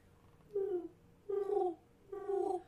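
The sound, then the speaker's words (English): A person imitates a pigeon's cooing with three throaty, slightly falling coos, evenly spaced, with no other talking. “… and I can both communicate with pigeons, apparently.”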